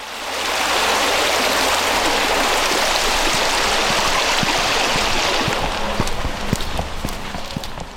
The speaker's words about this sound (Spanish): varios días de lluvia, el riachuelo que discurre paralelo a Itzea baja crecido.